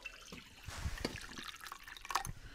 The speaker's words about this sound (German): ich habe hier zwei Teller und in dem einen Teller ist heißes Wasser. Mhm. Also ich schütte das jetzt da rein.